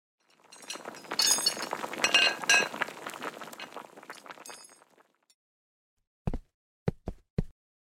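Kitchen clatter of dishes and utensils as someone starts cooking dinner, boiling water for noodles, clinking and rattling for several seconds, dense and fairly loud, then silence followed by four sharp, separate knocks or taps. No one speaks.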